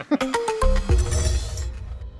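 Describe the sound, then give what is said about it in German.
Beer glasses clink together in a toast, four or five bright, ringing knocks in quick succession, their tones fading over a low background murmur. “Und ich glaube, jetzt haben wir uns alle noch ein Bier verdient, oder? Ja, das lassen wir uns schmecken. Prost.”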